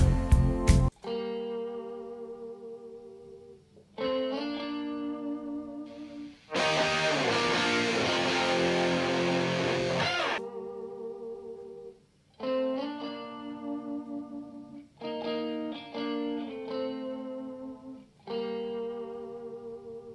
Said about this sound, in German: Ich habe mir an der Stelle ja noch die Gitarrenspur rausgepickt, wo ich auch bewundert habe, wie er das elegant auffüllt. Das ist nochmal die Pre-Hook. Ich zeige zuerst alles und dann hören wir uns nur die Gitarre an.